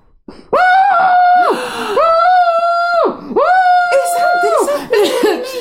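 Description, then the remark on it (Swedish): A woman with a pillow imitates her husband screaming with his head down in the pillow in bed: three long, loud, strained wails in a row, each cut off, followed by rougher breathy cries with a little laughter. “Ja, inte att jag skriker utan att min man ligger med huvudet ner i kudden och skriker så.”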